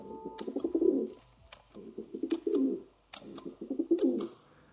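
A pigeon coos in three rolling, throaty phrases, each about a second long with brief pauses between, moderately loud, with a few sharp clicks scattered through. No one speaks.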